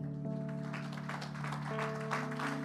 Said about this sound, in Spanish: Le damos gracias al Señor. Fuerte ese aplauso para el Señor.